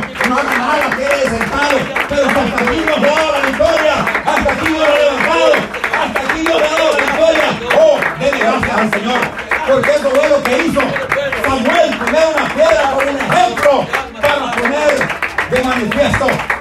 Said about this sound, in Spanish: Si usted está alegre que hasta aquí le trajo el Señor, déle un aplauso al Señor.